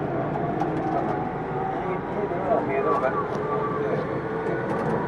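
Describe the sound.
A Tokyu 2000 series commuter train running between Shibuya and Azamino, its steady rumble and rolling noise filling the scene without letup, with faint voices murmuring underneath.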